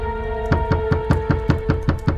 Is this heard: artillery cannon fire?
no